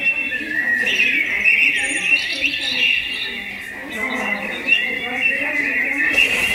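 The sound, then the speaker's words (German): Steady electronic bird chirping from a toy bird in a small box in a shop, set off by a motion detector, a continuous stream of bright trills and twitters at fairly even loudness, with a soft murmur of room noise underneath. “heute ist Nikolaustag und bei Ihnen im Geschäft hört man das Vögelzwitschern.”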